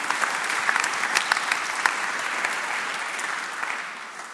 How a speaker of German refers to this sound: Applaus.